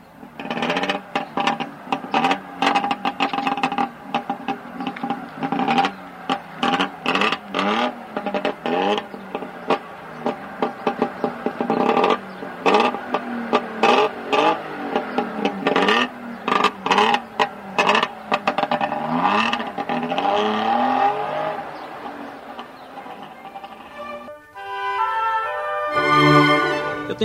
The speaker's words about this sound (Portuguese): Este é o ronco do motor do DKV.